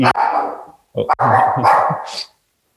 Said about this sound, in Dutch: Is dat een pakketje aan de deur? de hond slaat aan de hond, eh, de hond ook, eh, heeft ook een mening erover. Die, die ja, nou, check, dat doet hij wel, doet hij wel vaker.